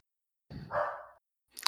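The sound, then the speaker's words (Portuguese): A single short dog bark, a bit muffled, followed moments later by a brief sharp clatter. No one speaks. “Tu vai ter que repetir que eu acho que o cachorro pegou teu.”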